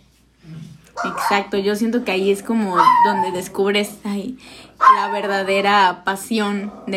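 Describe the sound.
Two dogs that do not get along bark at each other in the background while a person keeps talking over them. The barks come in short, scattered bursts, partly buried beneath the steady voice.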